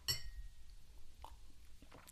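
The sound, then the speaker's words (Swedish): A single bright clink of glass in a faked toast rings out near the start, its clear tone lingering briefly before fading into quiet, with a few soft handling taps afterward and no voices. “Nu avslöjade du min fejkskål. Jag hade ja. tänkt så här låtsas att det var vi ja, som skålade Men ja, vi, vi har...”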